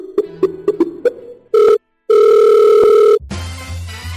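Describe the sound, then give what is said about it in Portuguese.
A quick run of five short keypad beeps as a phone call is placed to voice actor Guilherme Briggs, then a telephone ring tone sounds twice, a brief burst and a longer steady one, before a line click and hiss. “Vamos ligar para Guilherme Briggs, né?”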